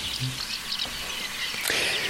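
Faint, high bird chirps repeat a few times in the distance, half buried under a steady hiss of outdoor noise, with a brief louder rustle near the end.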